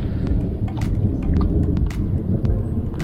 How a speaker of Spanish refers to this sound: ¿Pueden escuchar los truenos?